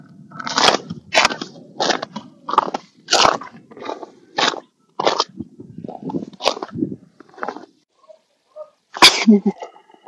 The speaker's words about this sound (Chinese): 这个就还有点冰呢，已经踩在地上，上面就跟雪的声音不一样。